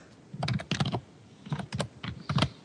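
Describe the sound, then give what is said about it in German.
Rapid, loud clattering keystrokes on a computer keyboard, coming in quick bursts with short pauses between them, with no voices. “Oh, wer tippt denn da so laut?”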